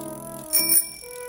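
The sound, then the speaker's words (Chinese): A bicycle bell rings with a bright, metallic tone as a bicycle passes through fields. It is struck twice in quick succession midway, and its shimmering overtones linger and slowly fade. No voices. “脚踏车穿过了田野”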